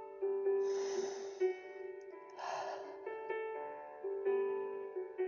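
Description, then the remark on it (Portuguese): A slow, deep breath drawn in and then released during a guided breathing exercise, two airy breathy swells, clear over a soft, sustained musical drone with no talking. “Assim como as graças são renovadas a cada manhã, essa respiração vem para te trazer esse renovo.”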